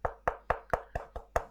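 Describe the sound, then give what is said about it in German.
Seven quick, even knocks on wood in a steady rhythm, each a sharp, fairly loud hollow rap that dies away fast, with nothing else heard between them. “So, dafür klopfe ich auf Holz.”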